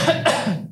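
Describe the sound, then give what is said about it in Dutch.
A short cough from a tickle in the throat, in two quick bursts, the second slightly stronger, trailing off into a faint throaty rasp. No one speaks. “Gezondheid. Nou, kriebeltje.”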